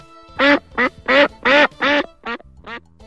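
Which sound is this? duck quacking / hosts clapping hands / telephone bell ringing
duck quacking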